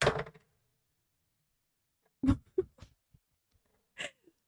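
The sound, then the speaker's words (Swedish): A pyrite crystal is dropped and hits a surface with a sharp knock, then after a pause a cluster of smaller clacks and taps follows as it settles, with one last brief tap near the end. “Jag tappade den i alla fall.”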